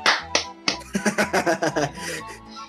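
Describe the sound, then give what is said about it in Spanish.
A quick run of about a dozen hand claps, moderately loud, in a steady fast rhythm, with some laughter or vocal sounds mixed underneath. “Entendí eso, déjate aplaudo, güey.”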